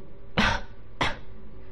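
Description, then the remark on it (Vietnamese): Two short, dry coughs about half a second apart, fairly loud, from an empress dowager patting her chest, standing alone over a faint steady background hum with no talking. “chỉ có thể vỗ ngực ho khan nhìn tô mạch ức với vẻ mặt vô cùng đau đớn”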